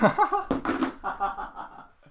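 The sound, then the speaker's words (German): A telephone loses its balance and topples over with a brief, noisy clatter, bracketed by a startled exclamation and then a stretch of laughter. “Das war das Telefon.”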